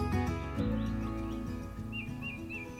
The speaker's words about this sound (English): Oh, the birds are chirping. I'm sure you can hear them in the background.